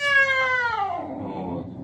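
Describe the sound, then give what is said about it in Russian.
A single drawn-out, whining cat yowl, imitated by a voice, of a cat yowling as its belly is felt, starts high and loud, then slides downward in pitch and fades into a rough, breathy tail. “И тут кошка начинает рать и хлестать меня по рукам когтями.”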